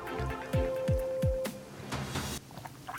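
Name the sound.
sipping coffee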